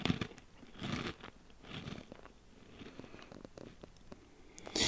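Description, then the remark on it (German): Crisp crunching of someone biting and chewing a pretzel, with repeated crackly bites and chewing in an irregular rhythm, no talking. “Ja, schreibt uns in die Kommentare, ob man das Brezel knuspern hört und ob ich das sein lassen soll.”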